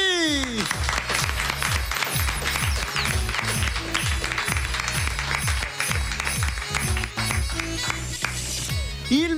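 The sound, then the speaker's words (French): An audience applauds itself steadily after a round of thanks, a dense wash of clapping mixed with loud music that has a regular thumping beat, with no pause in the noise. “Allez, on s'applaudit.”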